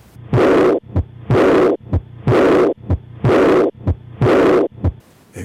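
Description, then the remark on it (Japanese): An early diastolic heart murmur of aortic regurgitation (aortic valve insufficiency): five steady cycles, each a short heartbeat thud followed by a long, loud, blowing whoosh that fades before the next beat. No voices. “このような雑音が大動脈弁閉鎖不全の雑音です”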